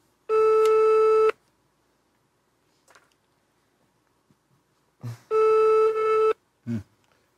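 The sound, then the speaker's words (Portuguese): An outgoing phone line rings: two steady, buzzy one-second tones separated by a long silent gap, heard through the receiver at moderate volume, with faint clicks and brief noises around the second ring. “É, só falou, vamos te ligar, vamos te ligar. Liga logo.”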